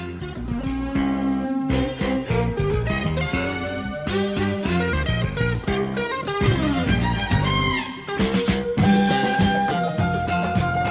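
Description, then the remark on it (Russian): A Saudi Arabian song plays loud and steady throughout, dense layered instruments under a gliding, ornamented melody line, with no talking over it. “Нет, не слабо. Саудовская Аравия.”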